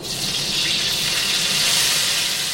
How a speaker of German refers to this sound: Das Öl ist heiß, die Krevetten kommen in die Pfanne.